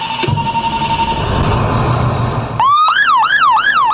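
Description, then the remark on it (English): A volunteer fire chief's fire truck, one of two Abbotsford fire trucks, sounds its siren: it starts up loud, sweeping upward, then wails in quick repeated rises and falls, following a few seconds of steady engine rumble and hum. “Stan McCarthy knows his way around a fire truck.”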